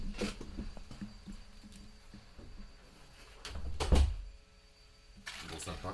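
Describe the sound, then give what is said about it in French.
A door is pushed shut, ending in a single heavy thud after a moment of shuffling and handling noise, with faint murmuring voices before it. “Donc je suis désolé, attendez, je vais quand même essayer de fermer la porte parce que faut pas déconner.”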